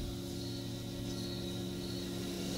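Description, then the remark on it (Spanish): A steady, continuous chorus of crickets chirping over a low, constant outdoor rumble of wind and rustling leaves, with no voices, in a film scene set at a cabin that Michelle Williams's character mentions. “Hay un cambio de música diegética con reverb a una extra extradiegética sin reverb y cuando Michelle Williams le comenta sobre una cabaña, desde lo sonoro se nos traslada ahí y empezamos a escuchar grillos, vientos, hojas.”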